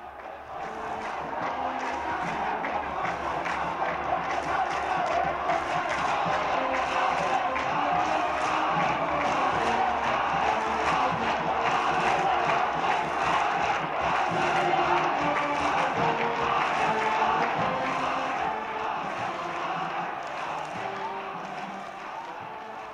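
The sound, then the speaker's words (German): A large crowd in Cairo roars and cheers continuously in the streets over the new mutual defence pact between Gamal Abdel Nasser and King Hussein of Jordan, a dense wash of many voices shouting with scattered sharp claps and bangs, swelling in at the start and fading at the end. “Nicht nur in Kairo jubelten die Massen über den neuen Beistandspakt zwischen Gamal Abdel Nasser und König Hussein von Jordanien, auch in Amman tanzten die Menschen vor Freude auf den Straßen.”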